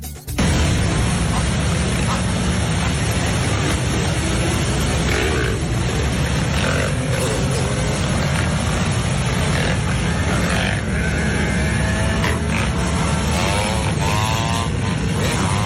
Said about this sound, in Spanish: Es el sonido de motos, eh, está claro.